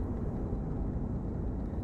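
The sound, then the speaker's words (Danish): A steady, low droning rumble fills the whole stretch, engine noise heard from inside an airplane cabin in flight to Tel Aviv, constant and unbroken with no voices. “Nu sidder vi her i flyet på vej til Tel Aviv.”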